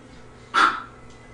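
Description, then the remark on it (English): A single sharp bark from the bigger dog, a real dog, rings out once against a quiet background, moderately loud, with a short fading tail and no talking. “that was the bigger dog. It's a real dog.”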